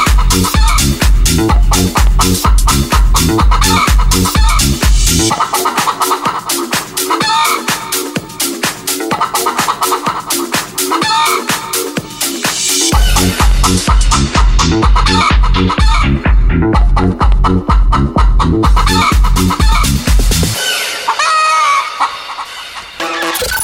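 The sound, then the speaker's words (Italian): A comic song built from rapid chicken clucks over a bouncy, loud musical backing, played on the Italian radio show Buoni o cattivi, the clucking repeating rhythmically throughout with a brief drop in the bass midway and a sparser ending. “Canzone della gallina sculacciata.”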